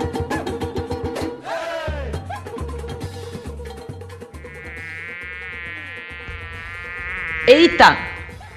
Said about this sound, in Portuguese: Tem uma mosca aqui no estúdio.